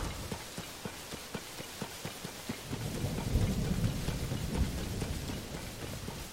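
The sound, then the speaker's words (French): Steady rain patters throughout a video game thunderstorm while a low rumble of thunder swells in the middle and slowly fades, with a faint regular tapping early on and no voices. “Oh là Je vais devoir virer là comme il y a de la foudre je vous conseille de virer tout ce qui est métallique sur vous. Sinon vous allez vous la prendre la foudre.”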